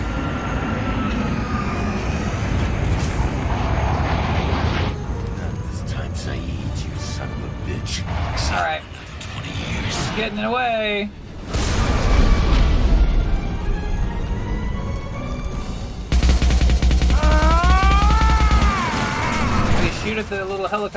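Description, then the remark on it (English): A loud, dense mechanical roar like a helicopter, broken by sharp bursts of gunfire and several booming explosions, with a voice talking over the din. “helicopter thingy and it, oh, it kills one of the guys next to him.”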